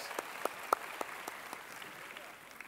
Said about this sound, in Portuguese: Salva de palmas.